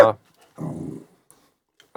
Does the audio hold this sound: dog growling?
yes